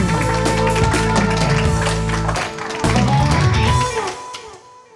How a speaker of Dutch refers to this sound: Live vanuit de Bibliotheek Marienburg in Nijmegen lanceren wij seizoen 2 van De Witte Stok. Laat het applaus klinken